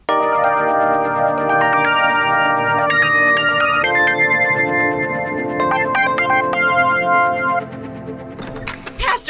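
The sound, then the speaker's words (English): A loud, melodic phone ringtone plays a repeating electronic tune for about eight seconds, then stops abruptly and is followed by a few sharp clicks and taps. “how do I answer the phone?”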